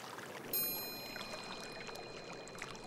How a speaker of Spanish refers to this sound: Por favor, quédense con nosotros unos momentos más para recibir el beneficio de una terapia sensorial, el sonido del agua.